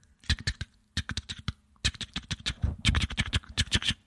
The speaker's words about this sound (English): Which is the telegraph. Right. Going off over at the New Orleans train station.